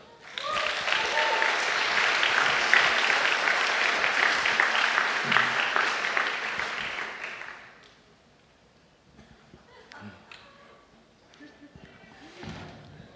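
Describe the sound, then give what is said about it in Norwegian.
An audience claps loudly and steadily for about seven seconds to welcome a man being introduced, a dense wash of hand claps that then fades out, leaving quieter background sounds and faint movement. “og dere må gi han òg en skikkelig applaus.”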